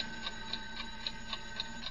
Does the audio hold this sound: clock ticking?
yes